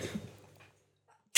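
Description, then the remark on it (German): A single sneeze, a sharp burst of air with a breathy tail that fades into silence, followed by a brief loud noise at the very end. “Gesundheit. Gesundheit,”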